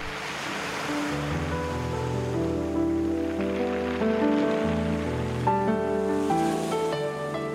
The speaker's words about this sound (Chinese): 浪花滚滚，海鸥飞鸣。